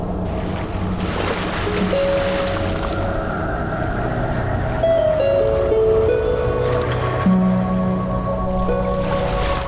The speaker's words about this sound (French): Les vagues frappaient violemment le rivage. Le vent soufflait, la pluie était battante tel était le climat des côtes occidentales.